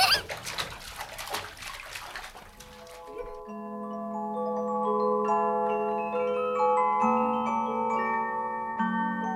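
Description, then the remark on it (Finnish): Lively splashing of warm water in a bathtub for about three seconds, then it stops and sustained, gentle musical tones take over for the rest. “Sitten kun ollaan kylvetty, mennään nukkumaan.”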